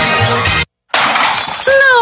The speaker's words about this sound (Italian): No, il smartphone in frantumi.